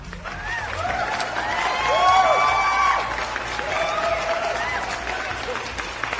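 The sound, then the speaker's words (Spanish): A crowd applauds and cheers for several seconds, the clapping and excited shouting swelling to a peak midway before settling into steady, slightly quieter applause. “Aplausos.”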